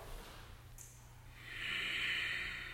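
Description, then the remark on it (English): Slow ujjayi breathing during a yoga sequence, long, slow and full: a soft, airy throat hiss that starts faint, then swells into a steady, louder rush for the second half. No one speaks, and a low hum runs underneath. “And like that, the ujjayi, in and out, in and out. Long, slow, full.”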